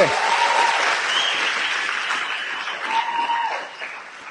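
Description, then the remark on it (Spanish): An audience bursts into sustained applause, called for to show guests the LOC product at a product presentation: a dense, steady wash of many hands clapping that holds for several seconds before thinning slightly toward the end, with faint whistles or cheers mixed in. “Un, aplauso para que le mostremos a los invitados que es el LOC.”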